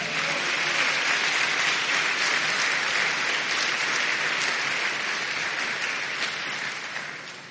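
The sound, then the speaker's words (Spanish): An audience claps for the Lord after a prayer, steadily and loudly for several seconds, a dense wash of many hands with no distinct beat, then the applause begins to thin and fade near the end. “Denle palmas al Señor.”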